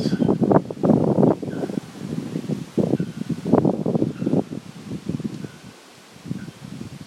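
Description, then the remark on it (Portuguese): Wind gusts through leafy trees, the rustling swelling and easing in uneven waves, fairly loud, continuous throughout with no voices. “Assim como as montanhas aceitam o sol, o vento, esse vento que sopra agora, a chuva, quem vem, quem vai.”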